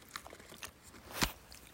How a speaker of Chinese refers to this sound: 讲到饼干。嗯。现在已经吃起来了，好好吃哦。好多种口味哦